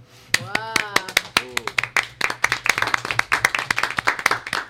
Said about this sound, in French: Merci, j'adore qu'on m'applaudisse.